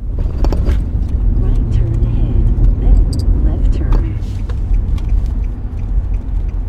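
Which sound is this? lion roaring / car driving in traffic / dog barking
car driving in traffic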